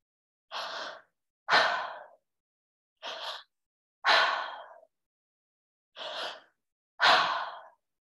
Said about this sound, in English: the breath pattern today is going to be a three part breath called a triactive breath